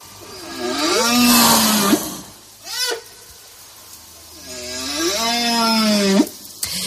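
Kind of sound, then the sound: animal, whale song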